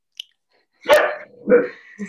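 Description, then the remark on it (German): A dog shut in a crate and wanting to get out barks twice in quick succession, loud, with a brief gap between the sharp yaps and no talking underneath. “Dein Hund mag gar nicht, dass wir darüber reden, ha?”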